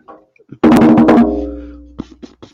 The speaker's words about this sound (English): Whoa, you had bongos there the whole time. Epic. No, it's just a just a big djembe.